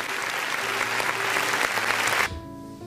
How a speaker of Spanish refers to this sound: Hay aplausos.